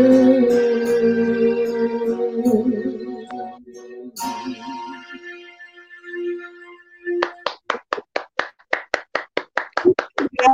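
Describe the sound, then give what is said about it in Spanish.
An audience applauds a singer's performance with steady, rhythmic clapping, a quick even beat of loud claps in unison that follows a stretch of sustained musical tones and continues to the end. “Aplauso, aplauso enorme.”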